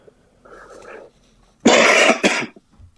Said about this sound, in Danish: Ja, der er i hvert fald et eller andet på. Der er nogen, der hoster.